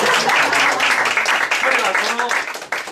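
Sustained audience applause at the end of a play in which one performer played four roles, a dense, steady wash of many hands clapping at a loud, even level for the full three seconds, briefly dipping near the end before resuming.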